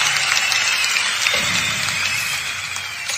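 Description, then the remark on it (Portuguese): A steady wash of crowd applause fills about three seconds at an even, fairly loud level, many hands clapping densely together with no voices over it. “E os nossos aplausos vão para”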